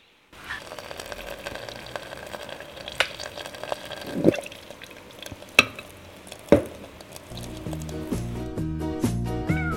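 Hot water, boiled in a kettle and left to cool a little, pours steadily into a teapot, a continuous gurgle broken by a few sharp ceramic clinks, with a soft melodic tune creeping in near the end.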